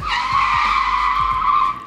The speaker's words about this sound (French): Les pneus crissent sur le sol, le moteur s'arrête, mes talons claquent le bitume.